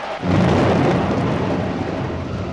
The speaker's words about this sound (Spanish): Caigan las sombras sobre la tierra arremetan unas contra otras las nubes y ensordezcan a los hombres con su estruendo.